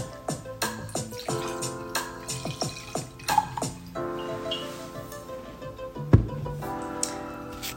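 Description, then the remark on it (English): Liquid glugs and splashes into a glass, with bubbly drips and a ringing, rising tone as it fills, followed by a few clinks and a final drip. “But before I begin, Let me just pour myself a little glass of clarity.”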